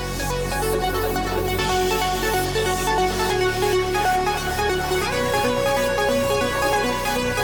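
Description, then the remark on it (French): A steady electronic demo tune played from a small Dirty Wave portable music tracker, with layered synth tones and a consistent beat at an even, moderate volume, with no voices. “Un petit tracker portable.”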